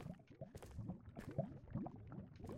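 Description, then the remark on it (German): Water in a video game flows with a steady bubbling, gurgling texture, soft and continuous throughout, with small irregular splashy pulses and no one speaking. “Ich sehe hier mal Wasser.”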